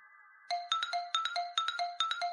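An electronic alarm clock rings: a brief steady tone, then loud, rapid bursts of high-pitched beeping that repeat in a quick, regular pattern. No voices are heard.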